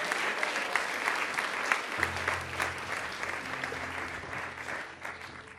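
An audience claps steadily, a dense wash of applause at moderate loudness lasting several seconds, with a low hum joining partway through and no clear voices on top.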